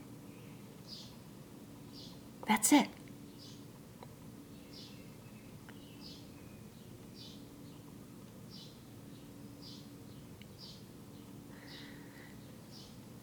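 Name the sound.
birds chirping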